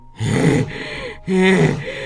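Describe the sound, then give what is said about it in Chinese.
A voice imitates a lion panting heavily, worn out from swinging at a mosquito: two loud, breathy, voiced gasps, each about half a second long, separated by a short pause, with a rough, low growling tone. “狮子在空中挥空拳，挥了半天，却怎么样也打不到蚊子，累得他直喘大气。”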